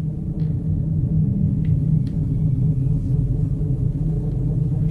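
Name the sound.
dark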